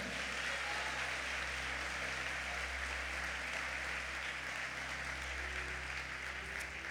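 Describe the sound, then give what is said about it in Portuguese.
An audience at a morning church service applauds the word of God together in steady, continuous clapping that holds at an even loudness for several seconds, with a low hum underneath and no talking. “Vamos aplaudir a palavra de Deus nessa manhã.”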